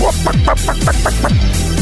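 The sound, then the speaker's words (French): A chicken clucks in a quick, steady series of about seven short, loud clucks, with no one talking over it. “vas te sentir le petit poulet d'un coin de bande?”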